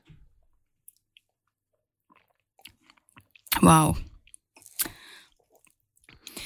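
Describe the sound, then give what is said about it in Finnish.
Soft lip smacks and wet mouth clicks come in scattered bursts as a person tastes wine, followed by a loud voiced exclamation of delight and a few more smacking sounds. “Kiva maiskutella täällä, mutta nam, nam, nam, tämä kuuluu tähän asiaan?”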